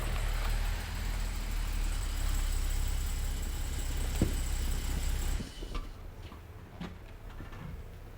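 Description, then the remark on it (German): A light blue car's engine idles with a steady low rumble for about five seconds, then shuts off, leaving quiet room tone with a few faint clicks and knocks. “ja, das ist sein Wagen.”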